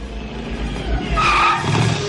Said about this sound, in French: J'avance la voiture et on rentre à la maison.